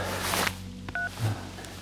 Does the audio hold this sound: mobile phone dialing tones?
yes